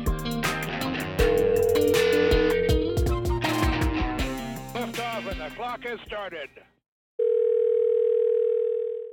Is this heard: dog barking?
no